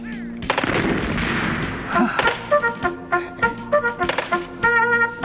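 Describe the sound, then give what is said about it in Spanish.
A loud battle scene of gunfire and artillery, the enemy shooting down from a hilltop at troops on a plain below: a dense roar of shots and blasts at first, then a rapid series of sharp cracks and booms continuing in uneven bursts, with no voices. “Allí estaba el enemigo en la punta del cerro, porque nos venían los balazos de arriba.”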